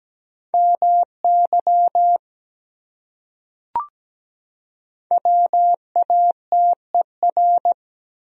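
Morse code at 17 words per minute: a steady mid-pitched tone keyed in short and long beeps, sent in two bursts with a pause and a single sharp click between them.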